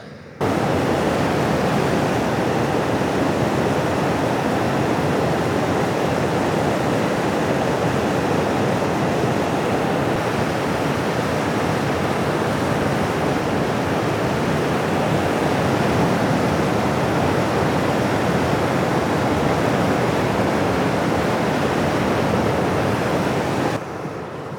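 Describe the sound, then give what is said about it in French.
A volcanic fumarole at the summit of the Soufrière vents sulphur gas and steam, in rainy, windy weather, in a loud, unbroken roar, a dense hiss that holds steady without pause from start to finish, with no voices. “ce sont des émanations de gaz qui soufflent au sommet de”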